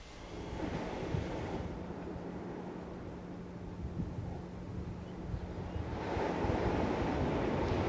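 Steady ocean surf rolls in a broad, constant wash at Porto da Barra beach in Salvador under a cloudy sky, with gusty wind noise rumbling over the microphone and a swell of louder breaking waves near the end. No voices.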